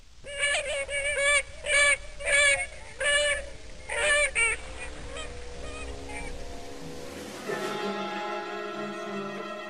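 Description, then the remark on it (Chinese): Swans honk loudly as they fly up into the sky, a quick, uneven run of six or seven nasal, brassy calls over a low rumble; the calls then stop, giving way to a steady sustained tone. “眨眼间，王子们一个又一个的变成了天鹅，飞上了天空，消失在了远方。”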